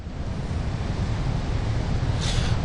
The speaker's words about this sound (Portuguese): a expectativa é de que o vento passe de 76 quilômetros por hora nas próximas horas aqui no Rio de Janeiro. A gente está na praia, está ventando bastante, está difícil falar com vocês.